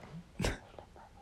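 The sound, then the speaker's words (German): A brief, breathy whisper into someone's ear, a soft hissing burst of air lasting under a second against a quiet background, with no clear words. “Flüsterst mir ins Ohr.”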